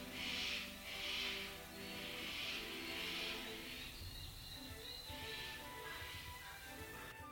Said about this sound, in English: Just waiting for the birds to stop.